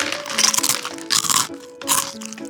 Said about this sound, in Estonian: sööd krõpsu ja kamarat. esiteks sööd krõpsu, aga tegelikult meil on vaja lumes am, mm, sammumise häält. selleks on olemas Ballsnack, Ossi sinepimaitselised sea, seakamara krõpsud.